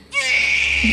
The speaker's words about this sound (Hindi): ये कैसी आवाज है ये तो किसी बालक के रोने की आवाज लगती है